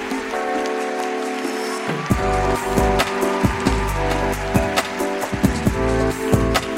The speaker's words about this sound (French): Merci, vous avez été vraiment une parenthèse de calme et de douceur pour nous. Allez, on, les applaudit.